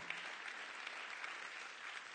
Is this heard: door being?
no